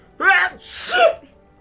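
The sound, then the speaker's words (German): A single loud sneeze: a sharp voiced intake rising into a bright, hissing burst that trails off, with no talking around it. “Gesundheit.”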